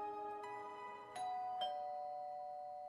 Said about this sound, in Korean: 현관에서 초인종을 누르자 평소와는 다르게 유키오 본인이 직접 나왔다.